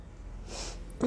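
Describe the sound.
A yawn: a soft, airy intake of breath swells and fades, then a short voiced sound rises louder at the end.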